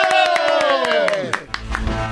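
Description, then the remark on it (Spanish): An audience claps in quick, steady bursts for someone introduced as the future first lady, while a loud cheering voice holds a long whoop that slides downward in pitch, followed by scattered shouts and continued applause. “Por favor, pido el aplauso y la aplausa para la primera futura dama.”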